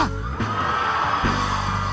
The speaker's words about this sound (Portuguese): Dá um grito aí comigo. Vamos lá. Você pode fazer melhor do que isso. Grito de alegria.